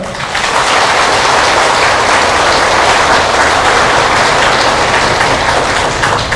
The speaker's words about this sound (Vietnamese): tất cả chúng ta hãy dành một tràng vỗ tay thật lớn